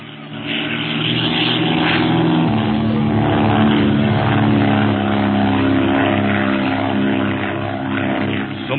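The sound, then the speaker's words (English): A propeller airplane roars close overhead, its droning engine loud and steady throughout, with a strong harmonic buzz that swells slightly and holds before easing near the end. “Hmm, perhaps lunatics are playing the plane.”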